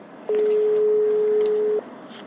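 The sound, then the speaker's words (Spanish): A single steady telephone tone plays over a speakerphone turned up to full volume as a call is placed, holding for about a second and a half at a loud, even level before cutting off, with faint background noise and no talking. “Sí, tío, ya lo paso, voy a llamarlo. Vamos a llamarle. Sube a tope y pone el altavoz.”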